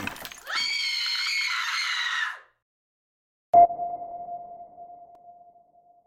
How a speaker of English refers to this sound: I came out of standby mode to the sound of shattering glass and a scream.